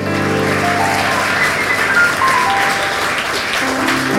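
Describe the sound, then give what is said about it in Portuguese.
An audience applauds the name of the Lord during a sermon, a dense, continuous patter of many hands clapping at an even loudness, with sustained musical tones and a faint voice held underneath. “Levante as suas mãos nessa hora, ou oh, aplauda o nome do Senhor, porque Ele merece.”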